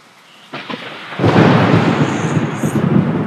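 Steady rain hisses in the background, then a loud, rumbling thunder clap breaks in about a second later and rolls on heavily to the end.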